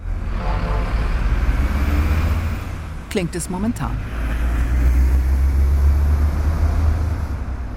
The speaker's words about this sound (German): Der Frankenschnellweg. Jeden Tag sind hier, je nach Schätzung, zwischen 40 und 60.000 Fahrzeuge unterwegs. Sie verursachen Dreck, Lärm, Gestank.